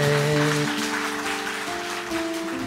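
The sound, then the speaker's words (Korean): An audience claps steadily as a missionary is introduced, a dense wash of hand claps that holds fairly loud for a few seconds, with a sustained organ or keyboard chord ringing underneath. “박수 한번.”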